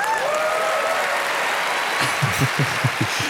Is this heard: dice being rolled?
no